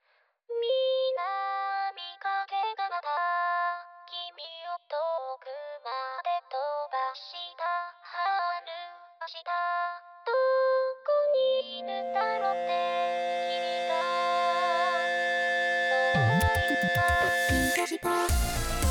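A Vocaloid synthesized-voice pop song plays loud: choppy, bright melodic phrases at first, then a fuller electronic backing swells in, bursting into a dense, distorted crash near the end.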